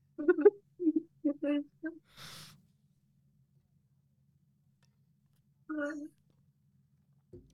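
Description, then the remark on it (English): A short, nasal cat vocalization stands out on its own after a string of quick laugh-like bursts and a breathy huff, faint. “even even my cat made a sound i think he laughed i think that was my cat laughing”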